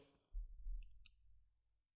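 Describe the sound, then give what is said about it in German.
Two soft, sharp computer mouse clicks with a short pause between them, two single clicks made too slowly to work as a double-click, quiet, over a low rumbling background and no talking. “Und dann, wenn jemand so zwei einfache Klicks macht, aber so viel Zeit dazwischen lässt, damit es nicht, damit, dass es nicht funktioniert, weißt du?”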